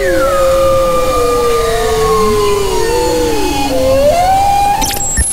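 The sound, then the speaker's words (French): Bowhead whale song: several overlapping tonal calls sliding slowly up and down in pitch, moaning and wavering continuously against a steady hiss of water, with a brief higher squeal near the end. “Quant au chant de la baleine boréale, on le compare au jazz, on vous laisse en juger.”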